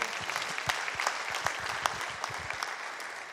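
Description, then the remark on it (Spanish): A church audience in a morning service claps together as applause for Jesus, a steady burst of applause with many hands at once making dense, even clapping that carries on for a few seconds with no voices standing out. “En esta mañana dígame un fuerte amén o dele un aplauso a Jesús si puede, por favor.”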